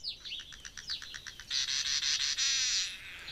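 A finch, Paulus Vink, calls with a quick series of high, sweeping chirps that run into a bright, buzzy trill, clear, with no voices around it.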